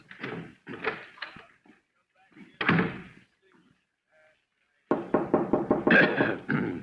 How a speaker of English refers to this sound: Uh, yes, yes, that's the door.